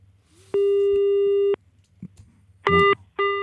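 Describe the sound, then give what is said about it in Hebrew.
A telephone busy signal on calling the phone of Knesset member Ahmad Tibi: a steady electronic tone sounds for about a second, then after a short gap two more shorter beeps follow, clear and fairly loud with no one speaking. “זה הטלפון של חבר הכנסת אחמד טיבי.”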